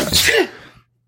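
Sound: sneeze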